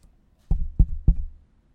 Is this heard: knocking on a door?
yes